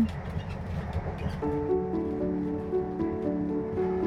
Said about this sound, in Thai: รถไฟเคลื่อนตัวออกจากชานชาลา